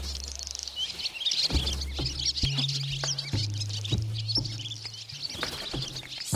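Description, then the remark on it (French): A flock of swallows chirps and twitters busily and continuously, their rapid high calls overlapping, over a low, shifting hum in the background. “Elle va appeler ses copines hirondelles pour l'aider.”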